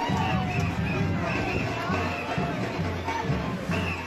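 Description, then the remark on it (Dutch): A dense, steady crowd murmur of many overlapping voices from a boat full of adults in blackface at the Sinterklaas arrival parade in Weesp, Netherlands, loud, with indistinct chatter and occasional raised shouts. “Nou, wat je nu hoort is dus een boot vol met allemaal mensen, volwassen mensen in blackface.”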